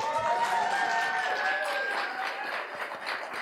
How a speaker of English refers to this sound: That was an audience clapping and slurring in approval.